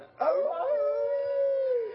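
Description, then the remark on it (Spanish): A person imitates a wolf howl: one long, sustained vocal tone starting with a rising swoop, holding steady, then sliding down at the end, loud. “A mí los aullidos no me salen tan bien porque yo soy el monstruo de Garfield”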